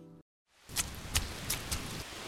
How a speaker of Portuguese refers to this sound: Ei, cara, vamos sair desta chuva?